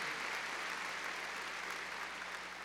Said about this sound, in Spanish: Y entonces, a ver, démosle palmas fuertes al Señor, a ver si logran allá en televisión.